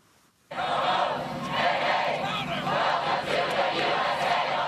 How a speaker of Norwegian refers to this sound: Ho, ho, hei, hei, welcome to the USA. Velkommen til USA, ropte de heldige som hadde fått plass på militærflyplassen, der paven landet i går ettermiddag.